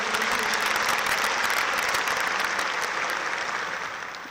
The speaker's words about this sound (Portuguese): Você pode dar uma salva de palmas bem forte para Jesus.